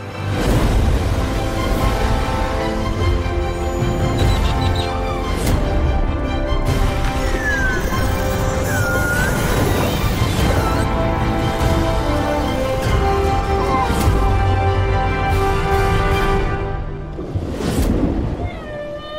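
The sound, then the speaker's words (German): Whales sing in long, wavering moans and rising and falling cries that carry on without pause, loud, over a deep, rumbling underwater wash. “Und wenn ihr jetzt genau hinhört, dann könnt ihr Wale singen hören.”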